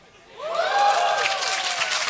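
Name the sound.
audience applause and cheering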